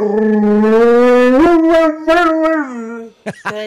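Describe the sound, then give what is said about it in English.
A dog lets out a long, loud, wavering howl that rises and dips in pitch, sounding almost like it is saying "mama," followed by a few short yips at the end. “this is what they filmed, and then went on to tell the story that this baby then started saying mama after the dog started making these sounds.”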